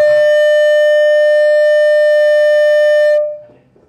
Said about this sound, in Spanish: Espérate, vamos a ver, porque es que, qué pena, pero tenemos que escuché como tiene que ser, es que está pidiendo cambio de batería.